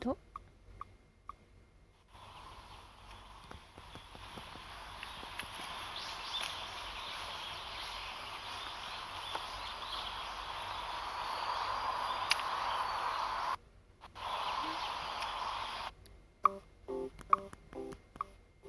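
Faint bird chirps, recorded on a smartphone, come through a steady hiss of outdoor noise along a forest-like walking path surrounded by trees, with soft footsteps of the person walking and a few brief electronic beeps near the end.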